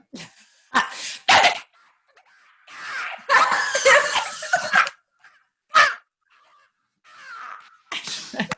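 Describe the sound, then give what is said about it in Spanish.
A voice imitates a stuttering, suicidal parrot proposed as a Disney character: harsh, raspy squawks come in choppy, irregular bursts, some broken into quick repeated stabs, with brief silences between them. “A ver, y el último es un loro tartamudo suicida.”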